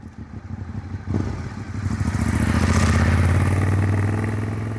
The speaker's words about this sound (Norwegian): Jeg har en eh, Ducati 848 Evo, fjorårets modell. En eh, superbike. Knallrød. Knallrød. Ja. Italiensk skal jo være rødt, helst.